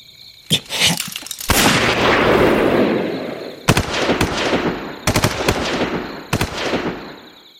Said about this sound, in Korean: 고이산의 첫 탄을 시작으로 한국군 중대의 모든 화기가 불을 뿜기 시작했다. 총구에서 나오는 불꽃이 어둠을 잠시 밝혔다 사라지고 총소리가 날 때마다 인민군의 비명이 어둠 속에 울려 퍼졌다.